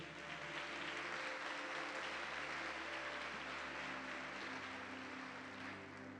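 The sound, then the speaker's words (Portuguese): An audience applauds steadily after being asked to give a round of applause to the king, a dense wash of many hands clapping at an even loudness throughout, with a low hum underneath and no voices. “Você pode dar uma salva de palmas ao rei?”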